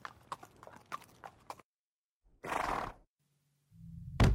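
A quick, steady run of hollow hoof clip-clops from a horse brought in as bait, then a pause and a loud, breathy horse whinny, followed by a brief low hum and a sudden thump at the end.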